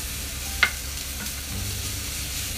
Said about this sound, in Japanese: 音が聞こえるかと思うんですけれども今日はカレーを作ってますね玉ねぎを今炒めていてカレーって言っても私が作るカレーはあのスパイスを使ったインドカレーというかスパイスカレーなんですけれどもルーは使わずにスパイスで作ってますじっくりと玉ねぎを炒める音をちょっと聞いていただきながらお届けしたいと思っています